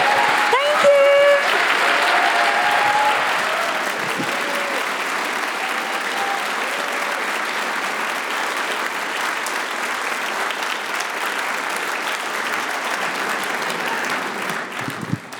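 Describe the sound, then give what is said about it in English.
Loud, sustained applause from a large audience for Mia McKenna Bruce fills the whole stretch, dense clapping with a few scattered whistles and cheers near the start, staying steady before easing slightly toward the end. “Can we have like a massive round of applause for Thank Mia?”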